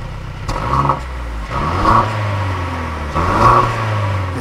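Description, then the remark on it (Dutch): The engine of a Mercedes-AMG convertible starts with a sharp burst, then is revved twice in strong, rising surges before settling back to a deep, steady idle, loud, with no one talking. “Mag ik het geluid horen? Ik eh, slinger hem aan voor je”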